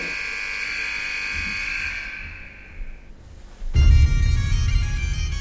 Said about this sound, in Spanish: suenan gaitas y ya sabemos qué significa eso